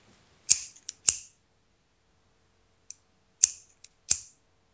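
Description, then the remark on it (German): Scissors snip sharply, two quick cuts with a lighter click between them, then after a pause a few more crisp snips in a row, with quiet in between. “Das ist eine Schere.”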